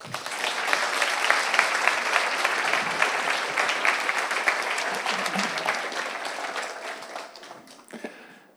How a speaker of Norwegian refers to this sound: Gi han en riktig god applaus.